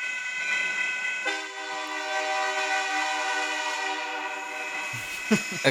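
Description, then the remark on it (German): A train passes at a railway crossing, heard from a car about to cross the tracks, its horn sounding in a long, loud, sustained blast over the rumble of the cars, with a few short clanks near the end. “Und ich musste nur noch über die Bahn schienen mit dem Auto. Und was passiert? Ein. Ja, er hier kommt nämlich.”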